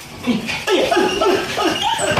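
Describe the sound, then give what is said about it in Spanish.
A dog whimpers, letting out a run of short, high, wavering whines one after another over a steady background hiss. “Ahí entró con el perro.”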